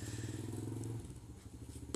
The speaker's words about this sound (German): Na, ein Kavalier mit seinem kleinen Moped fährt die langhaarige Dame, keine Ahnung, zum Märchenschloss.